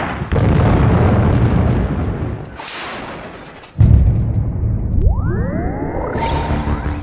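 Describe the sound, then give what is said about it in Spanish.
Loud, rumbling blasts of bombardment in the war of Russia's invasion of Ukraine roll on continuously, with a hissing rush and then a sharp, heavy boom, followed by a rising mechanical whine climbing over the rumble. “Y ese es el sonido que nos deja la guerra.”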